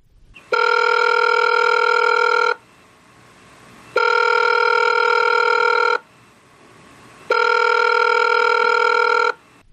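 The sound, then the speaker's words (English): A phone line rings three times as a call is placed to comedian Jimmy Failla, each steady electronic ring lasting about two seconds with short silent pauses between, with no one talking. “So let's give Jimmy a call.”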